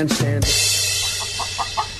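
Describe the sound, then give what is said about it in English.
A chicken gives a brief squawk, then clucks in a steady series of short, quick bursts over a constant hissy background. “Please tell me I'm not going to fly this holiday season, and someone next to me is going to have a, a, a, chicken that clucks.”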